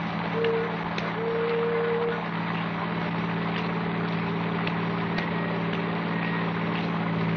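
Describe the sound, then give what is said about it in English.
A car engine hums steadily as the vehicle drives off in the rain, a continuous low rumble with road noise and no voices, the level staying even throughout. “Then the door slammed, and we were driving off.”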